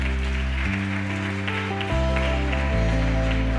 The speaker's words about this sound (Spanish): aplauso fuerte al Rey.